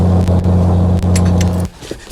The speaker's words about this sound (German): Dad, was ist los? D der Motor ist ausgegangen. Die Stromversorgung ist ausgefallen. Total. Wir müssen schnellstens runter zur Landung, bevor wir abschmieren. Mayday! Mayday! Hier Cessna November 3638 Papa. Motor ausgefallen. Versuchen Landung.